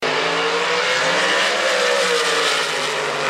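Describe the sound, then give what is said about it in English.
A drag racing car's engine gives a loud, sustained roar with a steady, harsh tire squeal layered on top as it does a burnout in the water box to heat the tires. The sound is continuous for a few seconds with no talking. “All right, let's make a pass. Let's get them hot. Let's put it in the water box.”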